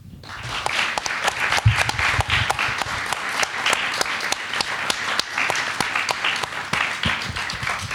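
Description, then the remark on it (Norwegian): A crowd applauds a panel of book authors for several seconds, a dense wash of many hands clapping with sharp individual claps standing out, sustained at an even level throughout with no talking. “Så stor applaus til dere.”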